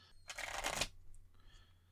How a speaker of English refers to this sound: And also, this isn't much in way of shuffling them because it's just moving each card a little bit. That's why you're supposed to do multiple shuffles.